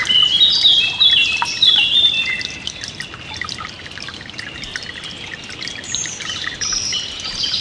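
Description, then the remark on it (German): A brook babbles softly and steadily in the background while birds chirp and sing brightly over it, with no voices present. “Das leise Plätschern des Baches ist sehr beruhigend.”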